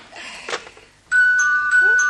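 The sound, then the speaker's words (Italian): A telephone rings loudly with a steady electronic tone broken by rapid repeated bursts, starting about halfway through after a brief stretch of low, muffled noise. “Un'altra volta il telefono degli elogi, sta settimana siamo piaciuti parecchio, eh?”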